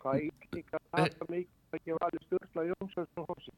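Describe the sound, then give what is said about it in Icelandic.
A caller's voice on a phone line comes through choppy and broken up while sending a greeting, with speech cutting in and out in short bursts and abrupt gaps between fragments. “það slittnar alveg í sundur hjá þér þar sem þú ert að, ert að senda kveðju”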